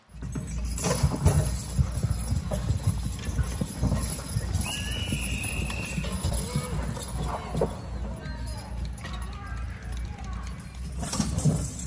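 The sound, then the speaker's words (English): Horse hooves clip-clop steadily as horses pull heavy concrete blocks weighing thousands of pounds, against a dense, noisy crowd backdrop, with indistinct voices murmuring throughout and a brief high whistle-like tone partway through. “I know where the fairgrounds are, and you can go watch horses pull concrete blocks.”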